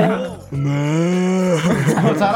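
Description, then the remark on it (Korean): A person on a radio show imitates a cow's moo for the 2021 Year of the Ox, one long, sustained, droning vocal tone lasting about a second, loud, followed by a brief murmur of voices. “2021년 소해니까 돌아가면서 음메해 주세요.”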